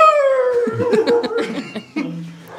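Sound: dogs howling and barking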